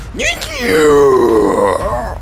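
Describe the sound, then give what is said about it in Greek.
A voice imitates the cry of a warrior wearing a lion skull as a helmet: one sustained, loud, strained groaning shout with a wavering pitch that rises then slowly falls, lasting about two seconds. “Περνάει, σε κοιτάει και σε δείχνει και βγάζει μια κραυγή.”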